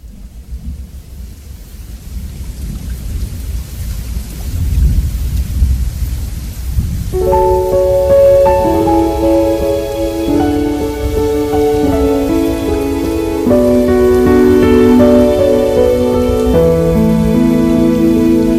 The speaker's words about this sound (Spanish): En algún lugar donde nos estás escuchando, está lloviendo.